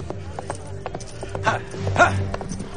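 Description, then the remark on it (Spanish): Horse hooves clip-clop in a steady, even rhythm of sharp knocks as a rider rides away on horseback from a mine, with a low rumbling hum and brief bursts of louder noise partway through. “El inglés se aleja cabalgando, mientras numerosas columnas de humo ascienden de distintos niveles de la mina.”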